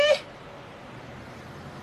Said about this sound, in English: e rile mo gare ga bosigo go sisibetse ke fa sebotseng a bula lebati gonne a utlwa khiti ya lela kwa ntle kitty